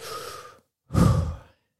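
Two breathy bursts with a brief pause between, the second louder and fuller, like a swallow-and-inhale followed by a deep exhale. Nobody speaks.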